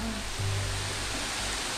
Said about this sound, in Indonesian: wah makin deras guys iya makin deras jadi kayaknya bakalan suara kita tertutup sama hujan ya